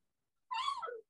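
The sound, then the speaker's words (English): A single high, drawn-out whine from a dog, about half a second long, sliding slightly downward in pitch at the end, heard on its own. “you can hear my dog in the background yeah.”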